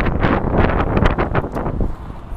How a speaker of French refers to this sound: Je suis en plein Paris, sur le pont, le pont d'Avignon ici. J'espère qu'il n'y a pas trop de vent, je vais essayer de le cacher avec un euh, Perfecto, il y a un peu de vent quand même.